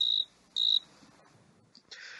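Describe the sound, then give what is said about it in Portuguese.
A cricket chirps in two loud, shrill bursts around a quarter second each, separated by a short pause, followed by a softer, rougher trill near the end over a quiet background. “É o grilo. É um grilo.”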